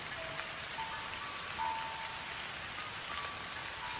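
Steady rain falls around a small, quiet temple in Japan, a dense, even hiss of drops pattering on surfaces, with a few faint tonal hums drifting in the background and no voices.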